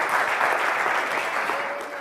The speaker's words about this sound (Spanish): Vamos a estar de pie, darle el aplauso al Señor.